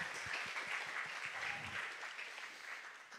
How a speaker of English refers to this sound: he was already alluded to, but now we get to, yeah, let's clap for him.